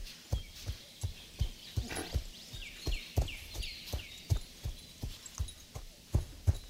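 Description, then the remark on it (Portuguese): A docile purebred horse walks at a steady pace, ridden on a short ride around a farm in the Serra Gaúcha, its hooves thudding in a regular rhythm, while birds chirp lightly in the background. No one speaks. “Montamos em um dos cavalos para uma breve cavalgada pelas redondezas.”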